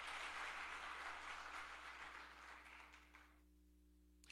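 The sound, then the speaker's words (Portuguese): A crowd claps steadily, applauding the Lord during a sermon, a dense wash of applause that holds for about three seconds and then quickly dies away, leaving near silence with a faint hum. “Você pode aplaudir o Senhor aí para eu poder beber uma água?”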